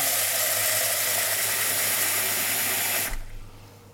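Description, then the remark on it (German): Water pours steadily into a cooking pot on an induction stove to pre-boil potatoes, with a dense, bright splashing rush for about three seconds, then stops abruptly, leaving a faint low rumble. No one speaks. “Deswegen werde ich auch hier jetzt schon einmal das Wasser zugeben.”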